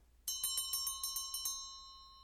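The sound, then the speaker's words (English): A bell rings in a quick burst of about eight bright, rapid strikes, clear, its metallic tone lingering and fading after the strikes stop. No one speaks. “that is the bell.”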